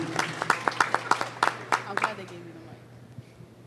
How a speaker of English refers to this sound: Clap it up for Teddy. Let's go, Teddy.